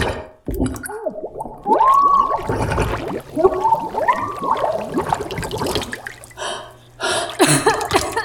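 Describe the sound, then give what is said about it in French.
Water sputters and gurgles from a faucet in uneven bursts, with squealing, whistling tones from the pipes rising and falling over it; fairly loud, with no talking. “Mais votre robinet est pas fini de pantoute.”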